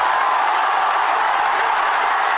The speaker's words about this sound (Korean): 비가 그치고 후반 손흥민이 그라운드를 밟자 팬들의 환호는 절정에 달했습니다.